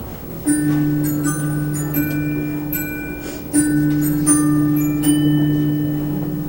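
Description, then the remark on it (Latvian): A theatre's third-call bell for the actors, before a performance in the large hall, rings in a steady, sustained electric ring, briefly pausing and starting again, fairly loud over a faint, busy background of clicks and room noise. “Lielajā zālē izrāde Sfinksa aktieriem trešais zvans, aktieriem trešais zvans un tas skan.”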